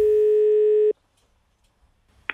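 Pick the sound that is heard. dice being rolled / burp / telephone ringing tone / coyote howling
telephone ringing tone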